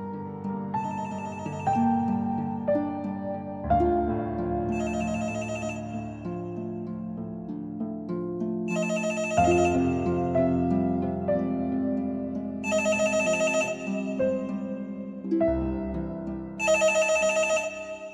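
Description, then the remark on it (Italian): A home landline telephone rings incessantly in the dark, with bright, tonal ring bursts recurring every few seconds against a sustained musical backdrop. It is steady and fairly loud, and no one speaks. “Il telefono di casa suonava incessantemente.”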